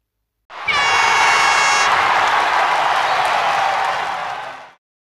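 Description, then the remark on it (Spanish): A burst of applause sound effect, dense and loud for about four seconds, opening with a brief bright horn-like tone over the clapping before it fades out. “Pero yo, hello, inserte por aquí de nuevo aplausos.”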